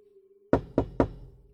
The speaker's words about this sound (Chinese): 我敲了两下门，却听到“吱呀”一声，门缓缓的开了。